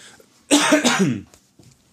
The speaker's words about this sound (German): Ich lasse mal das Husten von dir drin und alles andere schneide ich raus.